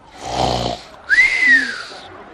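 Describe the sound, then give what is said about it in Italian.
A voice imitates snoring: one rough, rattling inhale followed by a breathy exhale with a whistling rise and fall. It is fairly loud, with no talking. “I più si addormentavano immediatamente in questo modo.”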